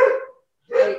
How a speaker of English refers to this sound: Just, oh, that's a dog. just get that.